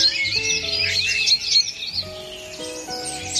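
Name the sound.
small birds chirping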